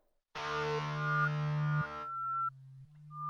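After a brief silence, a hip-hop track kicks in with loud, distorted sustained synth tones and a droning low note that shifts pitch partway through. No voices are heard.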